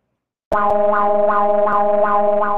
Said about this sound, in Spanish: Si usted tiene, escucha, llega a escuchar en la radio del vecino, eh, por ejemplo, este sonido significa que es la alerta sísmica y es momento de evacuar el lugar donde usted se encuentra y esto es lo que usted va a escuchar a las 11 de la mañana.